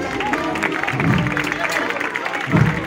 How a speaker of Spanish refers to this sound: A cada cambio que realiza la cuadrilla, el público aplaude, no es para menos.